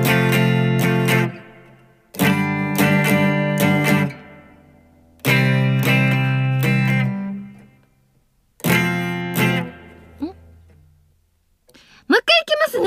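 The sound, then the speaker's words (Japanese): A guitar strums the chord progression of a song's opening chorus without singing, using a basic stroke pattern, in four bursts of rhythmic strokes with short pauses between, fairly loud, ending with a few scratchy, noisy sounds as the stroke changes. “じゃあまずその歌を歌わずにコード進行だけでその頭サビの部分いってみましょうかね。”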